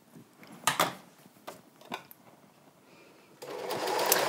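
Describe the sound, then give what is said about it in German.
A sewing machine fitted with a walking foot (top feed foot) stitches, first in a few short bursts with pauses, then running steadily for the last second or so. No one speaks over it. “Das äh, konnte man eben beim Nähen mit der Nähmaschine ganz gut sehen, dass dieses schwarze Häkchen, was hinten runterkommt und immer auch immer mit hoch und runter wippt, das ist dafür”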